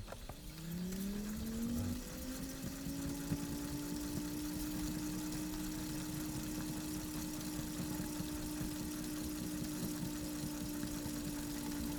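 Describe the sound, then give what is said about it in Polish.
A tape recorder rewinds with a steady motor whine that rises in pitch during the first two seconds, then holds a constant hum with a faint mechanical rattle underneath. No one speaks. “Tak, pokazuję, bo, bo zobaczymy jak, jak długo on to będzie przewijał, bo tu jest nagrane tam...”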